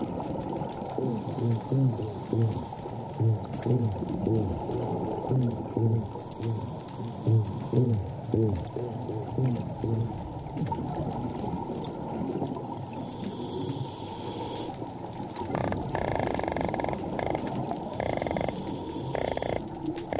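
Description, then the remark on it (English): Underwater coral reef ambience: a steady wash of dense crackling and snapping, with rhythmic low grunting pulses from fish that come and go, filling the whole stretch without any talking. “I'm going to leave you with some soothing coral reef sounds.”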